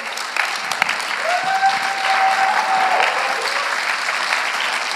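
An audience in a church bursts into sustained applause, a dense wash of many hands clapping steadily for several seconds, with a faint whistle or tone rising briefly over the noise.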